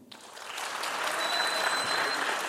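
Applause from a live audience swells quickly and holds steady, a dense wash of many hands clapping at once, fairly loud and continuous, with a faint high whistle cutting through partway.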